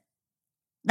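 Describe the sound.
After near silence, a person's voice abruptly lets out one short, bark-like yelp, imitating how the dog Fonzie sounds, cut off right at the end.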